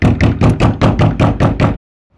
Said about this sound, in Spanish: Ella no le gustaba estar encerrada en su habitación, por eso cada día gritaba y golpeaba la puerta.